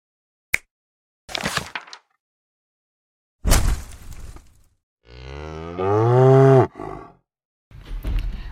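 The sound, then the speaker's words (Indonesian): A cow moos once in a long, loud, drawn-out call, preceded by a sharp click and a few rustling, scraping bursts, with more rustling after it. The cow is tied to trees. “Wah, sapi. Sapi terikat di pohon-pohon, Kak.”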